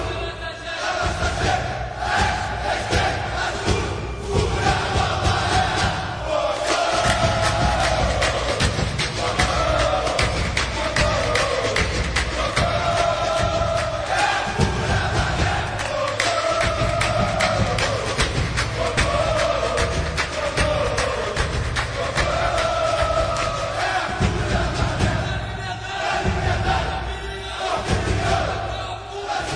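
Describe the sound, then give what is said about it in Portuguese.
Botafogo football supporters chant loudly and continuously in stadium stands, a dense wall of massed voices with rhythmic thumping beats, like drums or stamping, throughout. “Este é o som das torcidas do Botafogo”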